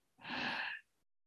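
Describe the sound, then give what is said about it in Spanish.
A single deep, airy inhalation during a guided breathing exercise, lasting over half a second, clear, rising smoothly and then cutting off, with no talking. “Esta respiración es para nuestro cuerpo físico y nada más. Inhalamos”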